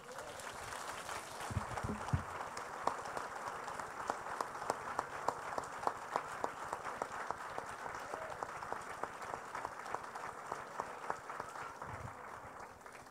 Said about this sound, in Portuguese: Mas eu gostaria que você aplaudisse o nome de Jesus. Amém?